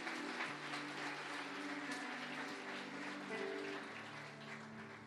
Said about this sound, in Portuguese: Eu queria que você desse novamente uma salva de palmas para os nossos amigos.